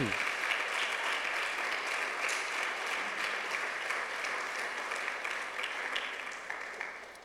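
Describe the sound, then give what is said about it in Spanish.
A church audience gives another round of applause to the Lord, a sustained, dense wash of clapping that holds steady for several seconds before tapering slightly at the end, with faint voices mixed underneath. “Denle otro aplauso al Señor, hermano.”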